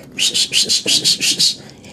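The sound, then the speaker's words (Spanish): A voice imitates the whistle a boyfriend used to call his girlfriend when he came to pick her up: about eight short, breathy, high-pitched bursts repeated in a quick, even rhythm, fairly loud, with no words spoken. “Me acuerdo que cuando llegaba a buscarla, güey, le chiflaba.”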